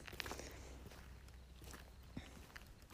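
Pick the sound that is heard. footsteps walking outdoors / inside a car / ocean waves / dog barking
footsteps walking outdoors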